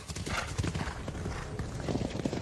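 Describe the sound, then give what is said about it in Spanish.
Horse hooves clip-clop in a steady rhythm over a busy background, with a horse whinnying partway through. “Animó a Felipe a practicar polo para compartir con él su interés por los caballos.”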